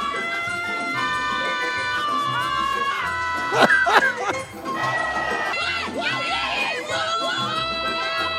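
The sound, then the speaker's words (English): Women's curling on ice: several players shout long, high-pitched calls over one another, swelling into a burst of louder yells midway, with a steady hiss of sweeping and crowd murmur underneath. “These are the sounds of women's curling.”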